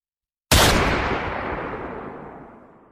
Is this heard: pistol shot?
yes